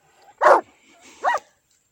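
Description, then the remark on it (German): Two loud dog barks from a dog that is approaching and getting closer, spaced apart, the first sharp and strong, the second slightly softer and more tonal, with quiet background in between. “hört man ein lautes Bellen. Es kommt immer näher.”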